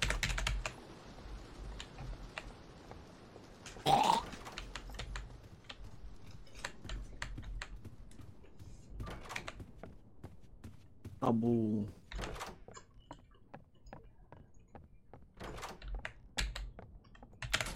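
Rapid keyboard smashing: a dense, irregular clatter of computer keys pounded hard throughout, with a couple of short vocal sounds breaking in partway through.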